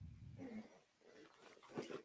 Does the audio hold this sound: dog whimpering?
yes